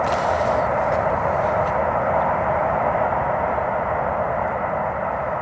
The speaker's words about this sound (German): schon echt laut, das, der Zugverkehr.